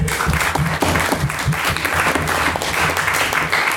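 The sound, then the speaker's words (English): An audience at a debate claps steadily after a speech, a dense crackle of many hands at an even, fairly loud level for a few seconds, with no voices standing out. “Uh, so another round of applause for Jack.”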